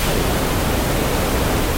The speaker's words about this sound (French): Ça, c'est le bruit blanc, par exemple. Mais donc voilà, euh, le bruit blanc, euh, c'est simple, c'est une réalisation d'un processus aléatoire dans lequel la densité de spray de puissance est la même sur toutes les fréquences de la bande passante.